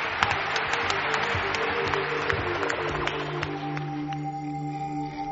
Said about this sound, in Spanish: nuestro aplauso, gracias.